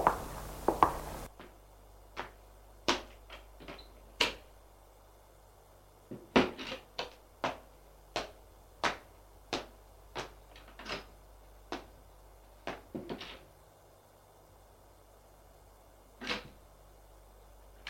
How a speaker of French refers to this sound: Alors il refait le couloir en ouvrant tout doucement les portes des chambres.